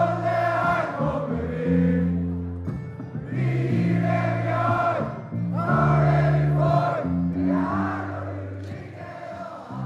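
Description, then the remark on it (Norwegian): A celebrating crowd at the victory party of Solskjær's players, in the party venue late at night, sings and chants together in loud, sustained phrases, with brief pauses between lines, and the voices swell and overlap throughout. “Og Solskjær trengte ikke å frykte at noen av hans spillere skulle gå tidlig hjem fra seiersfesten i går kveld, for eh, slik hørtes det ut i festlokalene sent i natt.”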